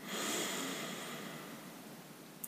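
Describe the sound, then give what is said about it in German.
A long, airy breath drawn in through an open mouth during a guided breathing exercise, steady and fading gently over a couple of seconds with no talking. “Atmen durch den Mund ein”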